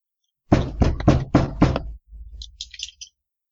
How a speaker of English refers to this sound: So uh, you're waking up when there's a knock on your door, and I, I knock is probably too of a delicate of a word. It's more like a pounding on your door.